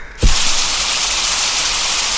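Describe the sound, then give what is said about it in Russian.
Bacon frying in a pan: a dense, steady sizzling hiss that starts abruptly after a short moment of quiet and keeps crackling at a fairly loud, even level, with no voices. “Так жарят бекон.”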